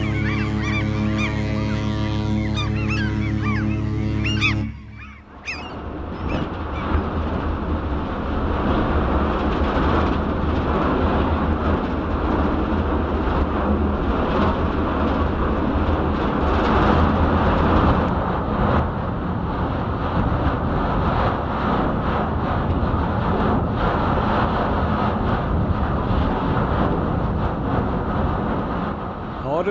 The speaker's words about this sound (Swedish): Det här ljudet som vi hör, det är isbrytaren Ymer